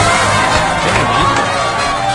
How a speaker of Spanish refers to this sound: Total, Un aplauso fuerte para ella, por favor. Total.